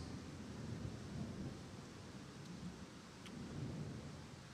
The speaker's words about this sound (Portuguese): Ouvir isso ao som de trovão é legal, não é?